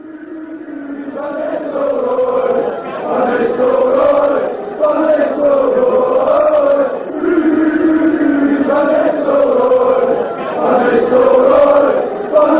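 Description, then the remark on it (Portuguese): A large crowd of football supporters sings a stadium chant in unison, a loud, sustained melody rising and falling in repeating phrases every few seconds, with no pauses throughout. “E a torcida foi mandou muito bem.”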